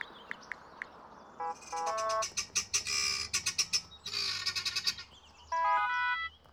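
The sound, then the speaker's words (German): A guineafowl calls loudly and harshly in rapid repeated bursts of rattling, cackling notes, with a few sharper squawks between runs, with no one talking. “Den Vogel erkenne ich. Das ist echt ein Perlhuhn.”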